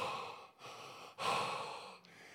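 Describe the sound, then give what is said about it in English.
A voice imitates heavy panting, with three or four loud, rapid breaths in quick succession, gasping and breathless, with no words spoken. “And I started panting. I started gasping for air.”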